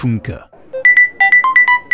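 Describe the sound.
A WhatsApp notification tone being chosen on a phone: a quick run of short, bright electronic beeps hopping between a higher and a lower pitch, following a brief moment of talking at the start.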